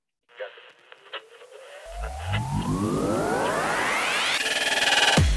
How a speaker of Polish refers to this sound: To są zakłócenia. Nie reguluj odbiornika.